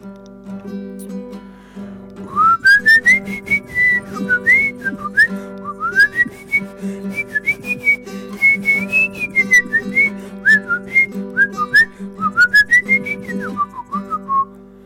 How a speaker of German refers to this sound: Ich pfeife vorne weg.